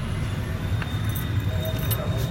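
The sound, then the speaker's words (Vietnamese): Keys jingle softly and a few faint metallic clicks sound as a key slides into the lock of a Korean Bumi safe and is turned clockwise, against a steady low background hum. “vặn tra chìa khóa vào vặn cùng kia đồng hồ”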